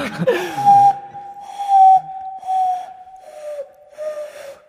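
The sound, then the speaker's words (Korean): A breathy human whistle imitating a danso flute holds one steady mid-high pitch for about five seconds, with airy hiss swelling in four or five soft pulses and slight dips in pitch. “야 아니 진짜 단소 소리가 나네요.”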